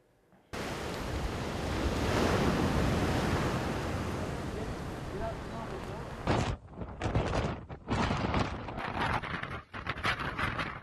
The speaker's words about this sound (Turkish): Antalya'da çok ciddi bir fırtına etkili oldu. Lodos fırtınası ile birlikte kuvvetli sağanak yağış da vardı.